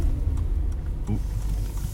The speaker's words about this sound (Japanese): すいません車がね来ましたね下がります下がります下がります下がりますはい譲りました